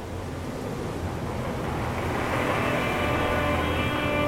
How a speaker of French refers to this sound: On est pris dans une tempête. On se perd, on revient sur nos pas, on tourne en rond. Le vent hurlait tellement qu'on s'entendait à peine.